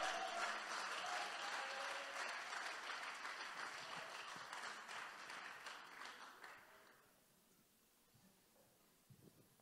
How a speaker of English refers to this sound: Can we give them a round of applause as they come up?